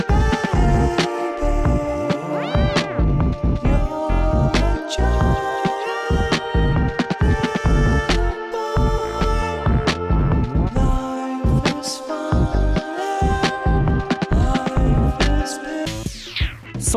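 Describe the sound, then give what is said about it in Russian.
A dense, layered song with sustained tonal lines and a steady pulse plays continuously at full volume, its swirling psychedelic textures giving a slightly eerie, lullaby-like feel, with a sweeping effect near the end. “То есть пришло время для страшноватых колыбельных типа …. Вот вам отрывок.”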